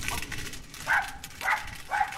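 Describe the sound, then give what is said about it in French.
A dog gives three short, sharp barks spaced about half a second apart, fairly high-pitched and a little yelpy, over a steady background hiss. “Bonjour le chien.”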